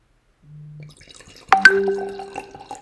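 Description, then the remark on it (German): Wine is poured into a glass: a short low gurgle, then a bright clink and a ringing glassy tone as the liquid splashes and trickles in, fairly quiet, with no voices. “Es ist Weinzeit. Mal, hören mal, hör, jetzt hören zu, jetzt pst, leise Sie bitte.”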